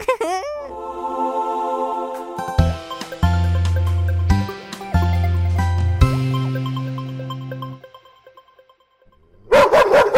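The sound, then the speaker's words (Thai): A neighbour's dog barks and yips repeatedly and loudly, heard throughout the lane, with sharp harmonic bursts over a sustained low tone, then it fades before a final burst of noisy barking at the end. “มาดูนายนั่นแหละ ไปแกล้งแย่หมาบ้านนั้นทำไม เสียงดังไปหมดทั้งซอยแล้วเนี่ย ฉันดูทีวีไม่รู้เรื่องเลย”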